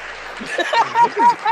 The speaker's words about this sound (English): niggas, niggas is clapping. Niggas is tired. Niggas is clapping for days. Niggas is tired.